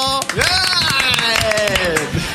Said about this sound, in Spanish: un aplauso por esto